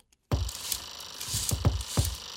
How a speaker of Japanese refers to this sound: うん、このヤミーさんのカーテンの音がこう規則的すぎないのがいいですね